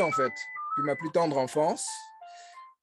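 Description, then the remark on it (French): A landline telephone rings softly in the background with a steady electronic melody of sustained tones, while a man keeps talking over it in the foreground. “Et au moment où tu nous parles de musique, on a ton, ta petite sonnerie de téléphone en arrière-plan.”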